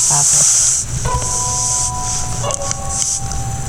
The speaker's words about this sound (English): The sounds of sliding things. Like something sliding across